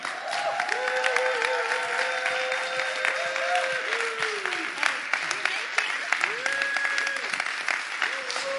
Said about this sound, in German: Und mit einem großen Applaus begrüßen wir